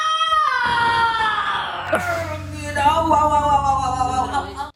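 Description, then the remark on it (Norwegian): A woman in labor, lying in a hospital bed, screams in pain, long and loud, her anguished cries wavering and sliding in pitch almost without pause. Raw, with no talking over it. “Du ser henne ligge i sykesengen, magen buler litt, hun, du har liksom halve kroppen hennes, og så sitter hun og skriker i starten. du kan jo høre litt på skrikingen hennes.”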